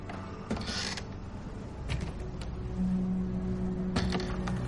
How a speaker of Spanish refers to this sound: ¿Qué hay ahí? Abre una puerta.